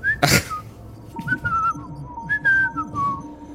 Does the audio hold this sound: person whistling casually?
yes